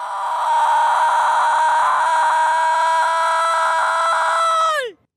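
A single voice holds a long, loud shouted "Goal!" cheer at a steady high pitch for about five seconds during a goal-cheer challenge, then it drops sharply in pitch and cuts off.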